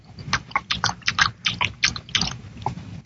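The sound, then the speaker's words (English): Wet chewing and smacking of someone eating up food from the refrigerator, with quick irregular bites and crunches repeating steadily for a few seconds, fairly loud and with no one talking. “In the goddamn refrigerator, eating up all the food, all the chicken, all the pig feet.”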